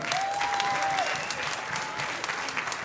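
An audience applauds steadily as a woman is called back up on stage, a dense crackle of many hands clapping at a fairly even level throughout. A thin whistle rises briefly at the start and fades out.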